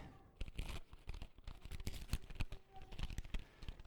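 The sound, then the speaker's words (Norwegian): Tape is peeled and torn away from linen cloth in a series of crackling rips and crinkles, rising and falling irregularly for a few seconds. “Ja, det er teipen som vi satt på og greier.”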